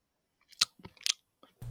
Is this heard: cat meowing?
no